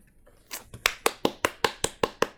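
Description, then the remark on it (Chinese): A single person claps about nine times in a quick, steady rhythm, each clap a sharp, bright snap, starting softly and quickly growing firm and even, applauding the two people who wrote and read aloud a letter. No one speaks. “只有我能鼓掌，就是因为一个是写的，一个是读的，为你们两位鼓掌”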